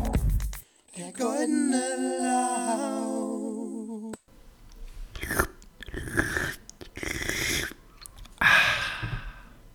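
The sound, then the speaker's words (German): A voice mimics slurping a cocktail through a straw: a wavering, gurgly hum lasting a few seconds, then a run of wet, hissing sucking noises, fairly loud. “Ich, ich habe gerade versucht, so ein Strohhalm-Geräusch zu imitieren.”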